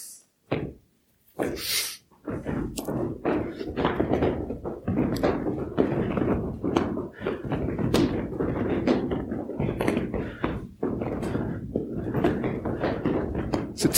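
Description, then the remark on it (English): Feet stomp on a floor during a body-awareness exercise in a long, irregular series of loud, heavy thuds, some quick and clustered, others separated by short pauses, over a dense rumbling background. “You can pause between stomps.”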